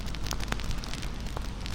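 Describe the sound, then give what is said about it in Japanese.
A campfire crackles steadily, with small sharp pops of burning firewood scattered irregularly over a soft, continuous low rumble of flames, moderately quiet. “ゆらゆらと炎が揺れパチパチと小さく弾ける薪の音が聞こえてきます炎のイメージと音に意識を向けることで他のことから意識を解放することができます”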